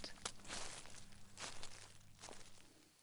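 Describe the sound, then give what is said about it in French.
Footsteps of a pregnant woman expecting twins trample laboriously through dry dead leaves in autumn before the huge glass door of a maternity hospital in Rennes, each step a crisp, crunching rustle in an uneven, heavy rhythm. Fairly loud, with no voices. “la future maman de jumeaux, arrive péniblement en piétinant dans les feuilles mortes.”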